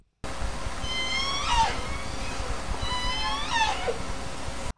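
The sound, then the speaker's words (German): Dolphin sounds: two sweeping, squeaky whistles about two seconds apart, rising and falling in pitch, over a steady hiss of rapid clicking and underwater noise. No one speaks. “und ähm, das ist ja so eine Form von von Klickgeräusch, würde ich jetzt mal behaupten.”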